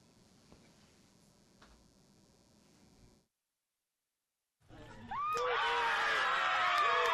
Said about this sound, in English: Tonight, the crowd outside Cup Foods in Minneapolis erupting in cheers as they learned of Derek Chauvin's conviction in George Floyd's death.